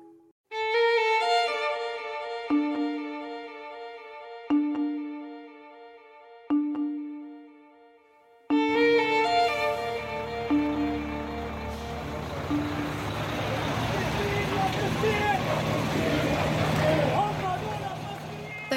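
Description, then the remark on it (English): A short musical jingle of sustained tones gives way to a loud, dense crowd cheering and shouting at Egypt's Rafah crossing point on the Israeli border as aid trucks cross into Gaza, many voices overlapping continuously over a low rumble of vehicles. “Those are cheers you can hear from Egypt's Rafah crossing point with the Israeli border, as aid trucks were finally able to get into Gaza.”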